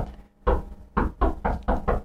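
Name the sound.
knocking on a door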